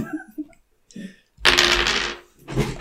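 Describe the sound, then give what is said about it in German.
Dice, rolled for a dexterity check in a game, clatter and tumble across a hard surface, a loud rattling burst followed by a shorter second clatter, after a few soft murmured words. “Ich würfel mal genau. auf Geschick.”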